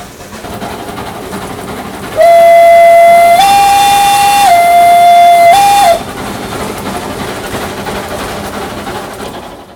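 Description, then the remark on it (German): A steam locomotive on the Rigi cog railway in Switzerland, Europe's first mountain railway, built in 1871, sounds one long, loud whistle blast of nearly four seconds, its pitch stepping up and back down, over a steady chugging rumble. “Und da wurde ganz gehörig Dampf gemacht.”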